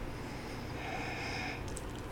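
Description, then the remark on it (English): A single drawn-out sniff, a steady breathy inhale lasting about a second as someone smells honey-colored bourbon in a glass, with no talking. “to keep your mouth open when you sniff?”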